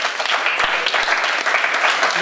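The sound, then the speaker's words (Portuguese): A crowd applauds steadily, a dense, continuous patter of many hands clapping at an even loudness throughout, with no voices standing out. “Uma salva de palmas para o”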